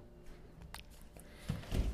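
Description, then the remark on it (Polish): A door being opened in the morning to go outside to a pool: a few light clicks and rattles of the handle and latch, then a soft low thud and rumble as it swings, all fairly quiet with no talking. “otwieramy drzwi i wychodzimy na dwór.”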